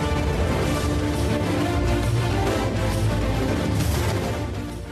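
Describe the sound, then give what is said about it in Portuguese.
A dense, steady music track plays on its own with no voices, full and loud throughout with sustained tones and a busy low end, tapering slightly in the final second; it is background music on the radio programme Os Donos da Bola. “Você está ouvindo uma trilha e você já ouviu a vinheta do nosso setorista do Santos Futebol Clube.”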